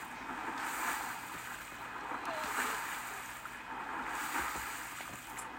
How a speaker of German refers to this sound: Und ich kann den Fluss entlang schwimmen. Nice.